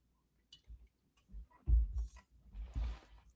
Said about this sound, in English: I'm going to take another sip of coffee.